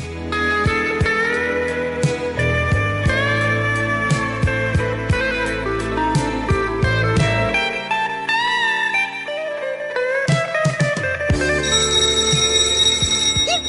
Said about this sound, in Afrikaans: Toe die voordeur klokkie lui.